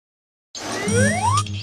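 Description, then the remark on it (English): A bright, bell-like chime rings out after a moment of silence, layered with a rising, sliding tone like a cartoon sound effect, held steady and fairly loud for about a second. “Bell. b b bell”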